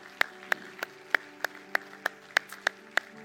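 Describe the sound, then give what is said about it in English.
Steady, evenly spaced hand claps, about three per second, sharp and crisp over a faint sustained hum, with no voices, as a church gives appreciation to its quizzers and staff. “One more time, let's give our quizzers and our staff some appreciation.”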